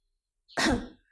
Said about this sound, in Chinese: 子豪咳嗽一声，皱眉说道